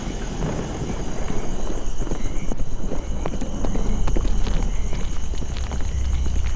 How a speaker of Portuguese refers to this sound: Pode ser uma caravana. Devem ter cavalos.